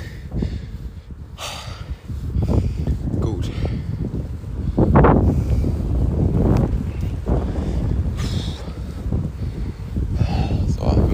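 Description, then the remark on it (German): Loud, rumbling wind buffets the microphone in continuous low gusts, with breathy bursts and a few voice-like sounds mixed in throughout. “Ja, jetzt kommt wieder der Wind, alles klar.”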